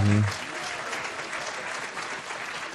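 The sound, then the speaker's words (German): A crowd applauds a quiz team that has 16 points, with steady, dense clapping that stays at an even loudness for about three seconds, following a brief trace of voice at the very start. “Applaus für dieses Team, dessen Namen wir gleich erfahren werden.”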